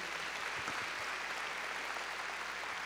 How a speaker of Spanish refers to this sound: Hermano, hasta el final, a ver, démosle, hermano, palmas fuertes a nuestro Señor.